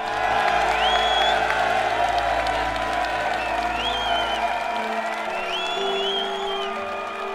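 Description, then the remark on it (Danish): A large crowd bursts into spontaneous cheering and applause after a speaker in South Jutland dialect ends with a verse from the Norwegian national anthem. Dense clapping is mixed with shouts and whistles, loud and continuous throughout, with a few voices calling out above the roar. “Og så bryder folkemængden ud i spontan jubel.”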